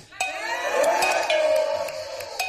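Glasses clink together in a toast, several bright ringing chimes overlapping amid a murmur of cheerful voices, with sharp metallic taps sounding again near the end.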